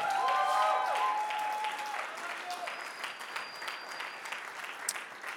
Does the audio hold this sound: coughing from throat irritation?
no